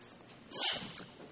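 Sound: sneeze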